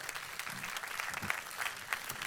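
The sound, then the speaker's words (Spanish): A church audience applauds together for the word of God, a dense, steady wash of many hands clapping at once, without any talking over it. “Denle un fuerte aplauso a la palabra de Dios en el día de hoy.”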